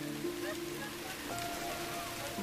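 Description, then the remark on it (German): Steady rain falls with a constant, even hiss that fills the whole moment, and faint tonal sounds drift underneath the downpour. “Aber wenn Regen gebraucht wird, können die Wetterhelden auch diesen hervorzaubern.”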